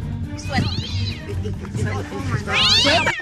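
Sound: cat meowing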